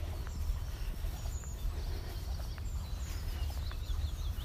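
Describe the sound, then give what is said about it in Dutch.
Faint birds chirp intermittently in the background, their short high calls scattered over a steady low outdoor rumble. No one speaks. “Misschien kun je bij mij op de achtergrond de vogeltjes horen.”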